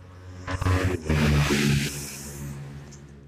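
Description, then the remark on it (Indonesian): A motorbike roars past at speed, its engine rising to a loud revving peak around the middle before fading away. No one speaks over it. “ya cah mau no motor lewat kenceng”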